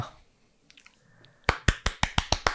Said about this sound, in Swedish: Fick du en liten applåd?